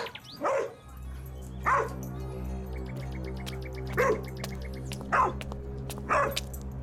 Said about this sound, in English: I'm not sure, but the dogs are going crazy over it.